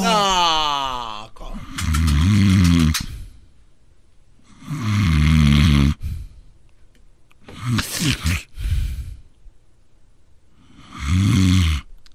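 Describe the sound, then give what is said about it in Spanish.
Loud, heavy snoring, four long rasping snores at a steady rhythm with quiet pauses between them, and no talking. “En la número 7 le disparó a su pareja con una escopeta por roncar mucho.”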